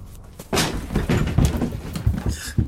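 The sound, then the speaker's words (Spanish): A back door bangs open with a sudden loud burst, followed by a scramble of heavy thuds and bumps as a person falls through it onto the kitchen floor. “Finalmente llegué al patio y atravesé la puerta trasera cayendo en la cocina.”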